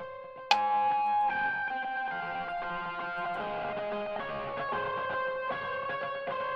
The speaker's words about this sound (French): Alors cette guitare s'arrête ici, mais une autre guitare reprend le relais ici.